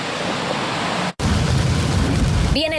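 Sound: heavy rain downpour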